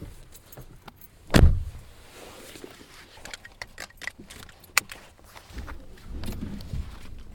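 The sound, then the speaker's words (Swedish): A heavy door of an old car thuds shut, followed by scattered clicks and rattles, then the car's older engine cranks and catches into a low rumble near the end. “Ja, där är den igång alltså”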